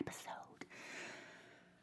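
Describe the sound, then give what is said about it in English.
Heavy breathing with a couple of quick sharp inhales followed by a long, airy exhale that trails off, with no one speaking. “I'm literally breathing heavy.”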